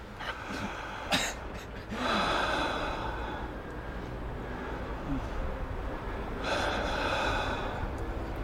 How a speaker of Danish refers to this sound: Jeg, jeg, jeg trækker vejret ind nu. Ja. Ind og ud og ind og ud.